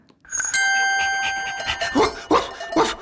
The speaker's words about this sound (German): Das wäre zum Beispiel schon mal der Hofhund, den du hier hörst.